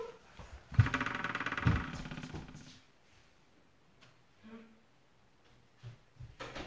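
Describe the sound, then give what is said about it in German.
A door is pushed shut with a loud rustling scrape and two solid thuds about a second apart, followed by quiet room tone and a few faint sounds. “Ich mache mal kurz die Tür zu.”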